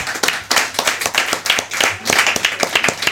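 A few seconds of lively hand clapping, a quick irregular patter of sharp claps from a small group, with no one talking over it.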